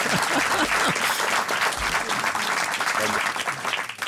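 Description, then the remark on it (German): Steady applause from an audience, a dense, even wash of many hands clapping at once, holding loud for the whole stretch and thinning slightly at the end, with faint voices mixed underneath. “Ihr Applaus.”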